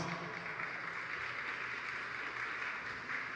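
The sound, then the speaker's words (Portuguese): An audience applauds steadily to welcome a guest to an interview, a dense, even wash of clapping that holds at the same level throughout without swelling or fading, with no voices heard over it. “Queria que você recebesse ele com uma salva de palmas.”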